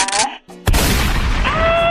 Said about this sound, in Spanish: Estos balazos me llegan.